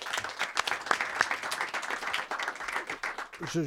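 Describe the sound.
An audience breaks into steady applause, dense overlapping claps filling the whole stretch at moderate loudness, with a voice briefly rising over it near the end.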